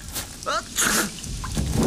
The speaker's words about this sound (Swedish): Men här går han ju all in på sin mm. performance. Han blir till och med lite, lite täppt i näsan efter nysningen.